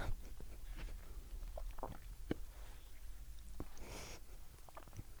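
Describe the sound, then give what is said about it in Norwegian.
Wet mouth smacks and lip clicks from someone smacking while talking, a scattered series of short, sharp snaps at an uneven rhythm, with a chewing-like quality and no clear speech. “Unnskyld til du lytteren som klager på at jeg smatte.”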